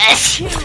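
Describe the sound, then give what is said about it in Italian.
A single sharp sneeze, a loud breathy burst of hissing air that trails off quickly within a fraction of a second. “Salute!”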